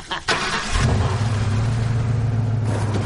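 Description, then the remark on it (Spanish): A car engine catches after a brief clatter, then settles into a steady, low droning rumble as Tanner drives the car away, with no voices. “Tanner se aleja en la dirección que llevaban.”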